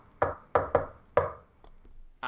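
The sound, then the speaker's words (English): Four sharp, resonant knocks on a hard surface in a quick syncopated old jingle-type rhythm, fairly loud, followed by a few faint softer taps and rustles. “I knock on it with. As soon as you hit with the second tap, the egg cracks”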